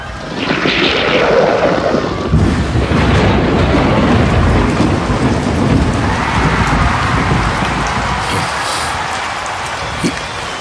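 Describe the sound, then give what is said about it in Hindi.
Steady heavy rain, brought by Arjuna's Varunastra, pours throughout, with deep rumbling thunder rolling underneath and a sharper crack near the end; the storm sounds loud, with no voices. “ये क्या है अर्जुन ने वरुणास्त्र से वर्षा कर दी है”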